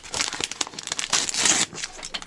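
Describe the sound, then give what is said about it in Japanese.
Crinkly plastic wrapping of an individually wrapped pack of eto senbei (zodiac rice crackers) being handled, a dense stream of crackling rustles and crunches with louder bursts, steady throughout with no voices. “おおえとえとせんべいえとせんあ何これ美味しそうえなんか可愛い”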